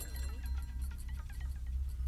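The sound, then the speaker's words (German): A Biomaris bottle and champagne glasses rattle and clink rapidly on a tray, a quick jittery chatter of small glassy taps over a steady low rumble, with no voices. “Die Biomaris-Flasche beginnt zu tanzen. Und die Gläser auf dem Tablett. Die Champagnergläser von dem Empfang vorhin.”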